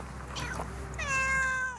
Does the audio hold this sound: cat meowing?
yes